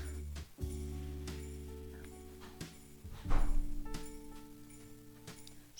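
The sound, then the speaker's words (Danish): A door slams shut with a heavy, booming thud partway through, after an earlier sharp knock, while steady tones hum in the background and no one speaks. “Skal vi lige vente til døren smækker?”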